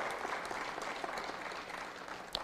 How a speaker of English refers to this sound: Give the Lord a big hand.